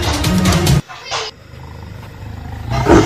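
A huge white tiger gives a loud roar, a deep rumbling growl that breaks off abruptly, followed by a brief hiss and a low, murmuring rumble that swells again at the end.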